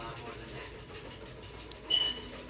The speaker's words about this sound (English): At least that dog is out of a cage for 2.5 seconds of its short life.